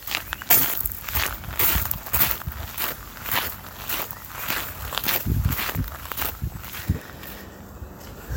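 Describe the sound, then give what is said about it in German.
Steady footsteps walking outdoors after leaving the Botanical Garden and crossing the street Pilgrimstein, a regular rhythm of soft crunching steps about two per second, moderately loud over a constant low background hiss, with no one speaking. “So, ich habe jetzt den Botanischen Garten verlassen, bin dann geradeaus über den Pilgrimstein, also über die Straße, die so heißt, hinausgegangen.”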